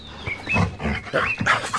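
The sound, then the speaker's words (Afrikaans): A dog vocalizes in a rapid run of short, throaty grunts and whiny yips, four or five bursts tumbling together over a couple of seconds, fairly loud with no talking. “Wat is dit my honde? Stem jy saam?”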